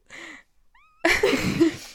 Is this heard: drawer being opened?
no